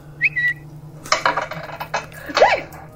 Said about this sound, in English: Whoa! Drop all my dice.